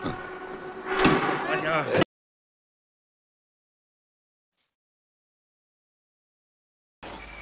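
A gallery door is opened with a loud, scraping slide lasting about two seconds, followed by a long stretch of silence before another sound briefly starts up.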